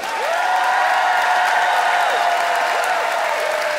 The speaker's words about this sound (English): It is time to vote by applause. Who's voting for Lisa Baker only because they're terrified of her? Lisa Baker. Okay, some fearful applause there.